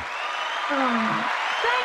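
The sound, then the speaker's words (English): Steady applause from a small group welcoming a guest to a show, a dense, even patter of clapping that fills the whole stretch, with a voice speaking briefly over it partway through. “The, the applause is coming from a small group of people I keep chained up under my desk.”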